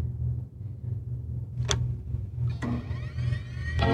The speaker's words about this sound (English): There's the first Apple store, Tyson's Corner, then a mini Apple store from Stanford Shopping Center, then the iconic Fifth Avenue Apple store, and then the Infinite Loop store. Listen to this. You hear these footsteps?